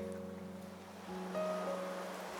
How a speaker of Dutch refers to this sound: En ik lig al heel snel op een strand aan de Middellandse Zee.